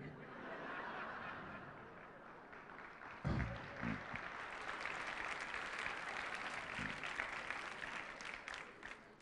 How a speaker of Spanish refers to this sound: Muchas gracias por estos aplausos. Animan tanto.